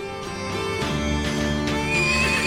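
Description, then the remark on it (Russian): A dapple-grey horse whinnies loudly, a long quavering neigh that wavers in pitch and rises toward the end, with no voices around it. “перед ним появился серый в яблоках конь Аргамак”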